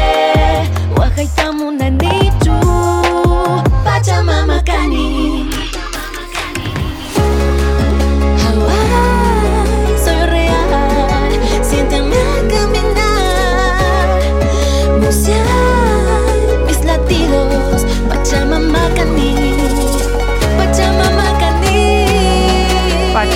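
An Andean urban rap song plays loud, opening with a sparse, choppy intro before a heavy bass-driven beat and dense layered instrumentation kick in around seven seconds.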